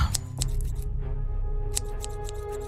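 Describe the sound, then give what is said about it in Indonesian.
Repeated crisp snips of scissors cutting grass, a quick burst of clicks early on and another run near the end, fairly clear over a low steady rumble. “Aku tidak menjawab ayah, sebab aku sudah memegang gunting dan mulai mencukuri rerumputan itu.”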